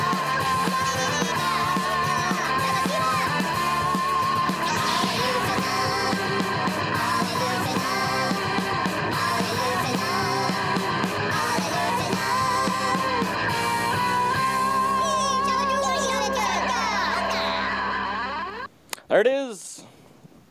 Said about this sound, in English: There's the awesome Ewok rock music in the background. I promise.